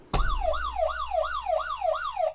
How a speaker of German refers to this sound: Ähm, und falls irgendwas falsch ist, wir haben hier sechs Buzzer stehen